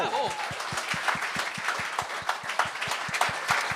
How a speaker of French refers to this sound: Bon, on peut l'applaudir. Bravo!